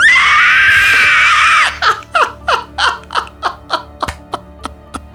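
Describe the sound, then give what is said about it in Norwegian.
A voice imitates an inhaled scream, screaming while breathing in: a loud, strained, rasping shriek held for over a second, then about nine short choppy bursts in a steady rhythm, alone. “Det, det du gjør, er at du puster inn mens du skriker.”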